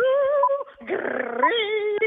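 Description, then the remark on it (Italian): A voice imitates pig grunts in an operatic style: about three sustained, sung-like squeals, the middle one rough and gravelly, loud and alone with no speech. “allora ci fai per favore tre grugniti lirici. Sì. Lirici? Eh, di maiale? Vai, di maiale, beh sì.”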